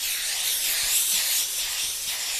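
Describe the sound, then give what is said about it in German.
A steam iron hisses steadily and loudly as a cap stretched on a five-part wooden form is pressed by hand through a pressing cloth, a broad continuous spray of steam that swells and eases slightly over a couple of seconds, with no voices. “Die ist fünfteilig und dann wird die Mütze da aufgezogen und von Hand gebügelt. Und das machen wir dann auch immer so mit einem Bügeltuch und richtig mit Dampf.”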